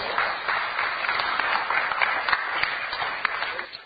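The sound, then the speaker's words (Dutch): An audience at a Dutch games industry event applauds the newly elected chairman of the Dutch Games Association as he takes the stage, a dense wash of many hands clapping at a fairly even level, with a few sharper individual claps standing out, for about four seconds. “Applaus voor jullie anders.”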